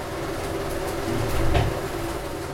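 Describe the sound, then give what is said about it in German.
A steady mechanical whirring and rumbling runs throughout, with a slightly louder burst of rattling near the middle, as cash counting machines run hot nonstop in the background in a bank in Cotonou. “Ja, das, was man hier im Hintergrund hört, das sind die äh, Geräusche der Geldzählmaschinen, die da gerade so ein bisschen heiß laufen.”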